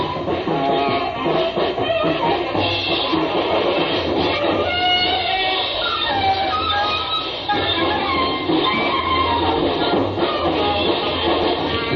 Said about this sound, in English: You're listening to Japanese jazz. Uh, this is coming out of a bar, and it's live.